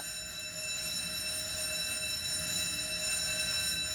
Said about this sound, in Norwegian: Når brannalarmen går, er Bjørnis klar med det samme.